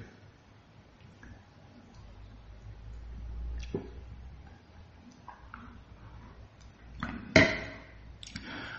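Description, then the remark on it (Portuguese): Someone pauses while talking to drink water: quiet handling noises and soft sips, then a sharp knock as a cup or bottle is set down near the end. “Deixa eu tomar água, peraí.”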